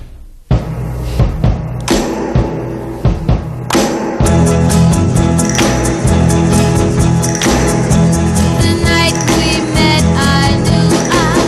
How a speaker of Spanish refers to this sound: lo que hizo es dar con el pie tres veces al bombo, recuperar la baqueta mientras hacía esto y dar el boom que se oye al principio de la canción, que suena así.